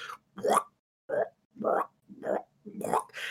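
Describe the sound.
A voice imitates the wet squelching of a grub-like creature dragging itself up the stairs, producing six short, moist bursts in an uneven rhythm, each a quick slurping smack with brief silences between, fairly loud.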